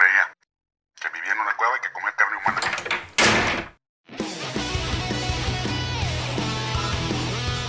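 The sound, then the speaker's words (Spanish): Someone speaks briefly, then a door slams shut with a single loud, sharp bang, and music starts up right after. “Damos portazo.”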